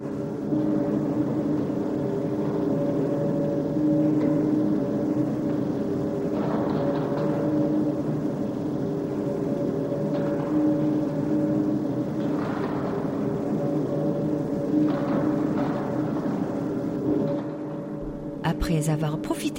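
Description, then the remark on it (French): A high-speed elevator in Seoul, listed in Guinness World Records as the world's fastest, ascends to the 117th floor in under a minute with a steady mechanical drone and whooshing rush that holds level for most of the ride, then shifts with a few soft clicks near the end. “lui aussi inscrit au Guinness World Record qui vous emmène au 117e étage en moins d'une minute. Et d'ailleurs, on sent bien nos oreilles qui se bouchent hein, quand on monte, hein, comme quand on décolle dans un avion.”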